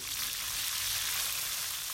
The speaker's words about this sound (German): In einer großen Wokpfanne brutzeln Seidenwürmer in heißem Öl. Nach zwei bis drei Minuten sind sie fertig und landen heiß auf dem Teller.